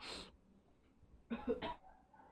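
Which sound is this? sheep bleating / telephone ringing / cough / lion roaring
cough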